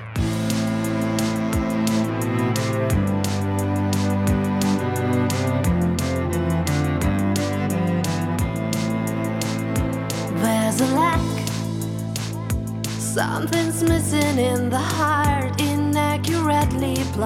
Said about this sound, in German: Okay, dann schlage ich vor, gehen wir mal auf den nächsten Song.